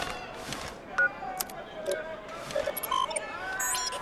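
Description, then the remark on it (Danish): A handful of short electronic keypad beeps at varying pitches, spaced irregularly as a time is entered one button at a time on a time bubble generator, heard over a low background hiss and faint rustling. “Jeg skal lige indtaste tiden.”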